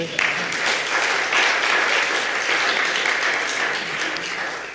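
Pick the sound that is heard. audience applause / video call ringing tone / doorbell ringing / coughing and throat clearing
audience applause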